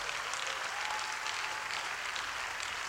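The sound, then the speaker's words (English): An audience at a prayer service claps together after a prayer, in sustained, dense applause, a steady hiss of many hands with no pauses, fairly loud throughout and no voices standing out. “In Jesus' mighty name, and everybody says, now clap like God has answered your prayer.”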